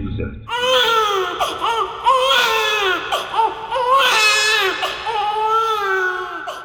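A newborn baby, just freed from the umbilical cord around its neck and slapped, cries loudly and continuously, with wavering, high-pitched wails rising and falling in long sobbing bursts, with no other voices.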